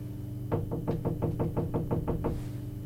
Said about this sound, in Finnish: Minä koputan.